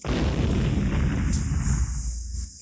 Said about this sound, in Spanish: Se siente una gran explosión. A través del gran techo de vidrio se puede ver humo y fuego cerca.